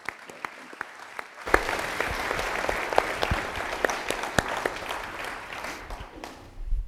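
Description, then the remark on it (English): An audience breaks into applause for Steve Hadley and his team: a few scattered claps at first, then a full, dense round of clapping that stays steady and fairly loud before tapering slightly at the end. “So please join me with a warm round of applause for Steve Hadley and his team.”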